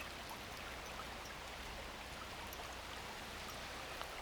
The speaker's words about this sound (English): Yeah, I'm enjoying the sound, the peaceful sound of the water.